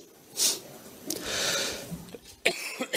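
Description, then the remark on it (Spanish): A single sneeze, a sharp intake followed by a breathy, hissing burst, over quiet background noise with a few small clicks afterward. “Salud.”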